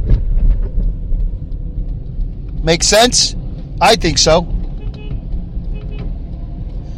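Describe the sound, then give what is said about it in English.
A steady, low road rumble from a car driving on a highway past the Albany toll booth at exit 23 in upstate New York, on the way to work, runs throughout, with two short bursts of people talking in the middle. “I'm just passing the Albany toll booth here, exit 23 in uh, upstate New York.”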